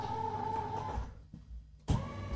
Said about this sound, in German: man den Tisch Höhen verstellen kann, das ist dieses Geräusch hier. Jetzt fährt er hoch.